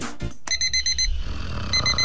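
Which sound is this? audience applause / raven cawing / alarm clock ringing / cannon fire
alarm clock ringing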